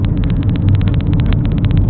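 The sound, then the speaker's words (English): A car, a Mazda, comes up and passes alongside on the left while the speaker drives, with a low, steady engine and road rumble and a rapid, even ticking pulse running over it the whole time, and no voices. “I didn't see you, sneaky car, sneaking up on me on my left.”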